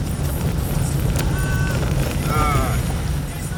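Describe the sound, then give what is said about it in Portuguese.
A car rolls over a cobblestone street in Carolzinha, freguesia de Jacarepaguá, a steady loud rumble and rattle heard from inside the vehicle, with a brief vocal sound from someone partway through. “Essas ruas de pedra é horrível.”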